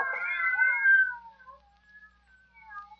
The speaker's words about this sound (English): Yes, some fiend, knowing her deadly fear of cats, has locked her in here with half a dozen of them.